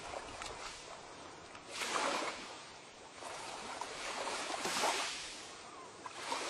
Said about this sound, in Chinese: 你静静的听着。一阵又一阵的海浪声，你觉得在阳光的照射下，全身都暖暖的。